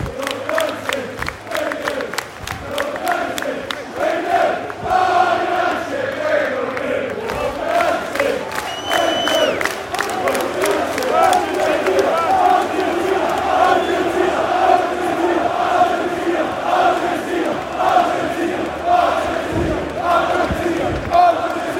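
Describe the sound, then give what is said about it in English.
An away football crowd cheers and chants in a loud, steady roar as the United players all come over to them, with sung voices rising through the din and scattered claps punctuating it throughout. “Yeah and the United players all coming over as one, and the crowd appreciating him.”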